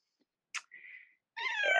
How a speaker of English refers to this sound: For those who, because Kitty Cat is going to come into our podcast, yes. who is your, your furry friend? My kitty, this is Sukkha.